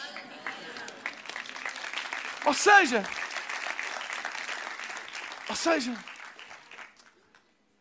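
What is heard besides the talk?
audience clapping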